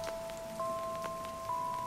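Steady rain falls with scattered droplets pattering on a surface, heard alone at moderate loudness, while a faint constant tonal hum runs underneath.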